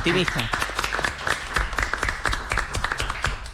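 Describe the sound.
Audience applause: a dense, steady patter of many hands clapping, fairly loud throughout, with a voice briefly audible over it at the start.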